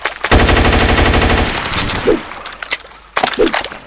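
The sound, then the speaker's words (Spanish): A rapid burst of automatic rifle fire from a video game, loud, followed by a few scattered single shots and mechanical clanks with no talking. “El problema de estas armas es que gastan mucho bala.”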